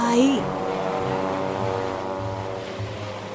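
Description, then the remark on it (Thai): Ocean waves wash steadily beneath a low, sustained droning tone as a sailing ship with its sail full of wind sets off toward a northern island, the sound holding even and fairly loud, with a brief rising voice-like tone at the very start. “พระราชาได้ตรัสแล้วเรือนั้นก็ได้แล่นออกไป”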